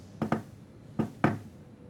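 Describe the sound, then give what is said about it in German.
Four sharp knocks on a tavern door in a practiced coded rhythm, a quick pair, a short pause, then two more spaced slightly apart, moderately loud with no voices. “Und du ja, betrittst den Raum dieses, dieser Taverne, deinem Klopfzeichen, was du vorher geübt hast.”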